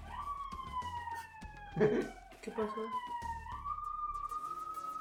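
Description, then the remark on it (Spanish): A police patrol car siren wails steadily outside, its tone sliding slowly downward and holding for the whole stretch, while a person briefly speaks over it partway through. “Está pisando la patrulla y nada más.”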